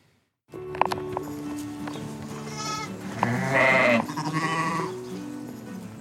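sheep bleating

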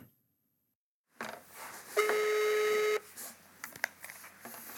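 telephone dialing tones

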